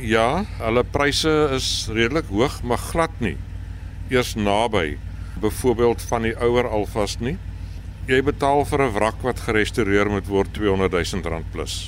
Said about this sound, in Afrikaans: Maar hoe is die werkverrigting want hier agter klink hierdie engine ek meen my kar sou lankal gevrek het as ek nie hierdie petrol ingetrap het.